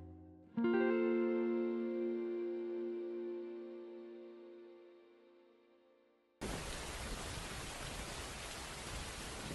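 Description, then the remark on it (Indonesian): A sustained musical chord rings out and slowly fades, then a steady, dense hiss of falling rain cuts in abruptly and continues evenly to the end, with no voices. “perasaan tadi langit cerah deh. Kok sekarang hujan ya?”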